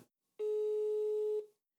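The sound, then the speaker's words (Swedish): A single steady telephone ringing tone as a call is placed to Sanna, about one second long, loud and clear before cutting off, with silence around it and no voices. “Vi ringer upp Sanna, tycker jag.”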